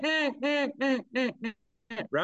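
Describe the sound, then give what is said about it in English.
A duck call blows a quick run of five loud, raspy quacks in a steady rhythm, pauses briefly, then starts two more. No talking. “that when it squalls out on top on the takeoff note of the ducks, it's not pitched, as what a live duck is.”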